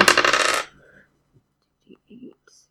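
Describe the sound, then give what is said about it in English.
Dice rolled to see if an attack hits in a game rattle and clatter loudly across a hard surface for about half a second, a dense burst of clicks that stops abruptly, followed by a few faint murmurs and soft bumps. “Okay, I would like to do Thundering Steel, which uh, I will roll to see if I hit.”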